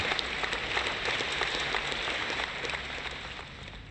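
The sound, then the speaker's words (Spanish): A burst of crowd applause and celebratory cheering played as an entrance sound effect, dense and steady with many overlapping claps, fairly loud, lasting a few seconds with no talking. “Yo escuché la celebración de entrada”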